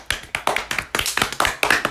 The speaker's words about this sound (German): Alter, wie viel haben wir geklatscht?